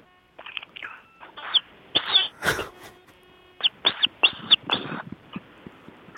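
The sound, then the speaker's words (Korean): A voice imitates a baby bird chirping over a phone call from a hiker on Geumjeongsan mountain in Busan: a run of short, high, squeaky peeps in two uneven bursts, separated by a brief breathy puff, with no talking. “좀 아기 새 준비했습니다.”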